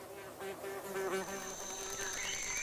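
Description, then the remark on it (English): A mosquito buzzes steadily, its thin whine wavering slightly in pitch as it drifts through the air, with no voices present. “A spider has spun a web in a corner a mosquito buzzes through the air.”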